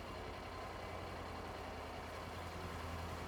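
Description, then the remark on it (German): A motorcycle engine rumbles steadily on a street, a continuous low, droning hum with no rise or fall in loudness and no voices. “Ja, jetzt habe ich das Motorrad kurz”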